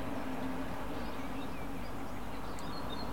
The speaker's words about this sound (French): Il y a d'ailleurs le bus du village qui part. Le bruit est très proche, pourtant le bus est très loin.